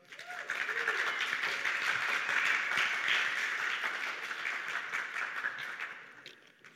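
Sustained applause from an audience, a dense wash of many hands clapping that swells quickly, holds steady for several seconds, then tapers off at the end.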